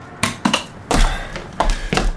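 Knocking on the window of a car parked in a parking lot with its lights on: about five firm knuckle taps landing at an uneven pace with short pauses between them, hollow and fairly loud, with no voices.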